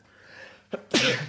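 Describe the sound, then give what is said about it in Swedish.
A single loud allergic sneeze: a short sharp intake followed by a bright, explosive burst that trails off, with no talking over it. “Prosit!”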